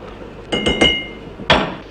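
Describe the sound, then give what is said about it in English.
A spoon clinks against a teapot as someone makes a pot of tea: three quick metallic taps with a slight ring, a short pause, then one more clear clink. No one speaks. “Warm the pot, always. Rinse out. Now. One for me. One for thee. One for the pot.”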